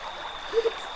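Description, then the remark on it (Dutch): Steady rush of the flowing water of the Caño Cristales river in the Serranía de la Macarena mountains, Colombia, with two quick croak-like chirps, probably a frog, popping up near the middle. “Dit is het geluid van de Caño Cristalis, ook wel de vloeibare regenboog genoemd.”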